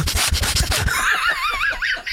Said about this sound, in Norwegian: Så trykker han nesa inntil mikrofonen og snufser.